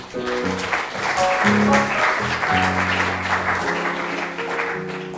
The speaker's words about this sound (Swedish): Kan ge en applåd nu.